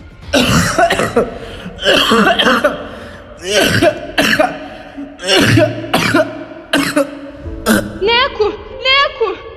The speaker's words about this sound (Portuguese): começa a tossir mais do que o de costume e acaba soltando a navalha. Cai de joelhos no chão, tossindo.